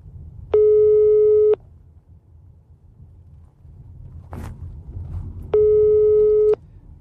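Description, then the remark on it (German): A phone ringback tone over a speakerphone while calling someone who does not answer: two steady one-second beeps about five seconds apart, with low rumble and a brief rustle between them. No one speaks. “Er möchte nicht möchte nicht mit mir telefonieren. Geh ran, Junge!”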